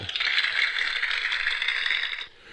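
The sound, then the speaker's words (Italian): Dense, steady applause from a crowd, clapping along to the show's theme tune, a continuous crackling wash of clapping that stays even in loudness for about two seconds before cutting off abruptly. “con gli applausi per la sigla.”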